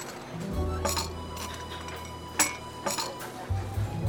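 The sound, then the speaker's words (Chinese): Coffee cups clink several times at irregular moments as a caramel macchiato and a matcha latte are served and set down, sharp bright taps over a steady low hum, with one louder clack partway through. “不好意思，呃，这里帮你们送上焦糖玛奇朵和抹茶拿铁。”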